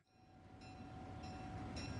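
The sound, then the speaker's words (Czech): A train rumbles steadily along the rails, a dense low roar building slightly in loudness, with faint high metallic tones and periodic bursts of hiss riding over it. “Všichni nasedli později do vlaku, který je odvezl až do přístavního městečka.”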